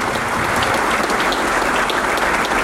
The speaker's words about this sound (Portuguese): Queria pedir a vocês uma salva de palmas para os nossos dois deputados.